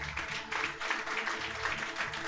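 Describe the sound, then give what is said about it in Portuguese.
An audience applauding the Lord at the close of a church service: dense, steady clapping from many hands, sustained and fairly loud throughout, with a faint low hum beneath and no voices. “Aplauda ao Senhor.”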